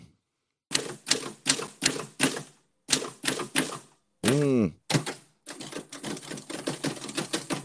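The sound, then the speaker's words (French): Sharp, heavy key strikes on a Japy SB 961 mechanical typewriter hit in quick bursts, followed by a ringing bell and the carriage return, then faster clattering typing; a voice briefly exclaims. “Peut-être euh, pourriez-vous vous approcher un peu plus avec votre micro euh, de, de la machine à écrire, quitte à être euh, juste au-dessus de la machine à écrire.”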